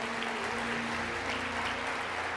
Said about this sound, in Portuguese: Dê um forte aplauso a Jesus por essa palavra.